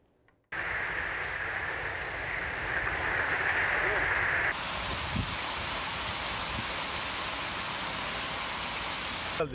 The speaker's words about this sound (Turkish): Trenden indik. Daha iner inmez hava karardı böyle bulutlandı. Yağmurla karışık dolu.